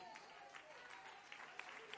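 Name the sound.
audience clapping in praise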